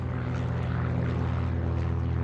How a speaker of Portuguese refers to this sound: No dia seguinte, puderam ouvir o pequeno avião pousando próximo do acampamento.